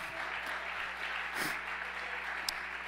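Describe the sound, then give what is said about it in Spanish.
An audience applauds in a dense, steady wash of clapping that holds at an even, moderate loudness throughout, with a few sharper claps standing out near the end. “Vamos a darle otro aplauso fuerte.”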